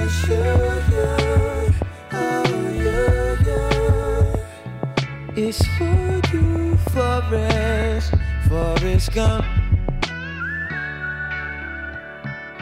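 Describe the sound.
A poppy R&B song with a hip-hop beat plays loud: punchy drums, deep bass and sung vocals, with brief drops in the groove and a sparser stretch near the end.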